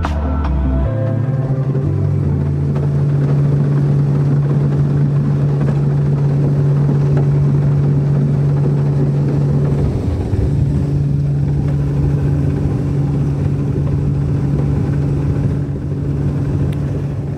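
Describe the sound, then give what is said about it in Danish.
A boat engine drones steadily throughout while sailing on Vejle Fjord, a loud, low hum with a constant pitch that dips briefly near the middle before settling again. No voices are heard. “sejle ind ja. og se, hvordan det ser ud der.”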